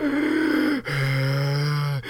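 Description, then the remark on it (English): Loud heavy breathing: a person takes two long, drawn-out breaths with a strained, voiced edge, separated by a brief pause, and then starts a third. No talking. “Do some heavy breathing.”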